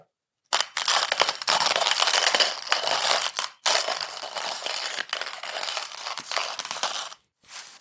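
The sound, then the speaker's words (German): Coffee beans being ground in a hand grinder: a loud, gritty crunching that runs continuously for several seconds, briefly pausing once before resuming, with no voices. “Ich male Kaffee in einer Handmühle.”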